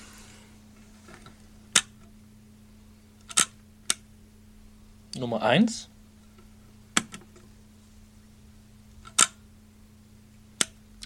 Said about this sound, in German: Jetzt der mhm. Shutter.